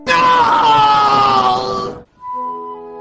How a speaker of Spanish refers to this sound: Sin embargo, un fuerte grito rompió aquella escena trágica y devolvió la alegría de todos los reunidos en el puerto de Tarragona para despedir a las doncellas.